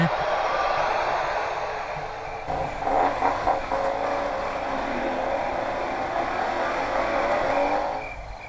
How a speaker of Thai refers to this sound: แต่ว่าอยู่ในเมืองก็ยังได้ยินเสียงรถที่ถนนข้างนอกนู้นแล่นผ่านไปผ่านมา